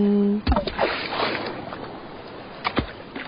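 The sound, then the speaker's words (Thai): Ocean waves wash and slosh against the white sand shore of Hat Sai Kaew beach in a steady wash of noise with a few sharper splashes, after a short tonal hum at the very start. “สียงคลื่นที่หาดทรายแก้ว เข้าเครื่องแปลภาษา เขาคงจะบอกเราว่ามาเที่ยวที่นี่สิ หาดทรายขาวน้ำทะเลใสรอคุณอยู่”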